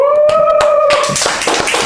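Audience applause welcoming a performer onto the stage at an evening show: a few scattered claps swell into a dense, steady patter of many hands, accompanied at first by a long, wavering high-pitched whistle-like tone.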